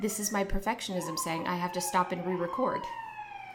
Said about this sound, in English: You can hear the sirens in the background.